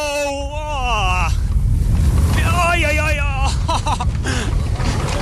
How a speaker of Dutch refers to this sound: Gaan we er zelf ook maar een keer in. In de boosterbike. Even op de klik wachten. En dan krijgen we de versnelling. En dat moet leuk zijn.